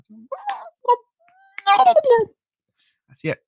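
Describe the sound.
A voice imitates dolphin calls: a few short squeaky chirps, then a longer warbling whistle that slides downward, and one final brief squeak after a pause.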